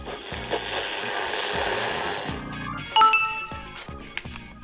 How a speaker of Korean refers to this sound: 어 문자 왔네.